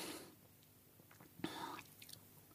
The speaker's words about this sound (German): du, äh, du merkst, dass ich auch mal einmal schlucken muss, weil ja.